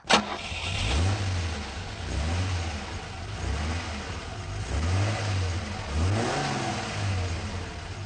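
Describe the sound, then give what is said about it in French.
A car engine starts with a sharp catch, then revs up and down several times in a steady, repeated pattern, fairly loud, with no voices. “Bruit de moteur.”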